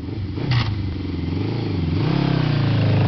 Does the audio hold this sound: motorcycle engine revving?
yes